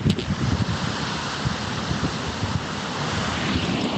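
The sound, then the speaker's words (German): Continuous roar of ocean surf washing onto a beach in a bay, steady with broad hissing texture and some wind buffeting the microphone of a phone held out toward the sea; no voices. “Und ich glaube, du hörst das Meeresrauschen.”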